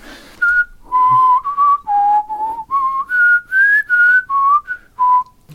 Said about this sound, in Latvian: Jo parasti uz iekšā svilpiens ir it kā klusāks.